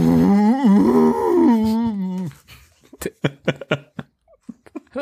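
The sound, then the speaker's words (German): A voice loudly imitates an elephant cow's mating trumpet, standing in for a car engine as the ignition key is turned a fifth time: a drawn-out, wavering, bellowing tone lasting about two seconds, followed by a quieter stretch of short, choppy bursts. “Als er den Zündschlüssel zum fünften Mal umdrehte, komm schon, Baby, stieß der Motor ein Geräusch aus, das sich wie der Brunftschrei einer Elefantenkuh anhörte.”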